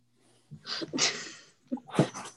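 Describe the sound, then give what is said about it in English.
A sharp, breathy gasp of air drawn in, followed moments later by a second quick, forceful intake, with no talking around them. “This is like a gasp of air right there.”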